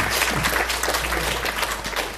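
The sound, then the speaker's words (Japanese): A room full of people applauds steadily to thank those who put up the decorations, a dense patter of many hands clapping at an even level throughout, with no voices heard over it. “えー、皆さん拍手で、えー、お礼をしていただいと思いますありがとうございました”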